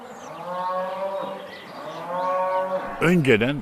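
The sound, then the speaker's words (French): Several cows of a family's herd moo in long, drawn-out calls that overlap, followed by a louder bellow at the end, like a herd of cattle calling together outdoors. “Chez Tahir, le troupeau, ça se vit en famille.”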